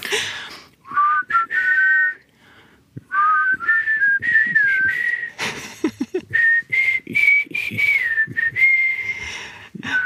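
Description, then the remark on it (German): Someone whistles a song melody in several clear, tuneful phrases separated by short pauses, the pitch gliding up and down, with breathy noise between notes and no talking. “Und für die, die es nicht ganz im Ohr haben, müssen wir mal, ganz mitpfeifen?”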